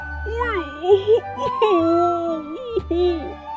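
A voice imitates gasping and whimpering from under a quilt on a bed in a guest room: whiny, wavering moans that slide up and down in pitch, broken by two or three sharp, breathy gasps, moderately loud with no words spoken.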